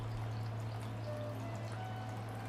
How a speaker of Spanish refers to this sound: Un hermoso jardín donde el arroyo trae agua cristalina que brota de las entrañas de la tierra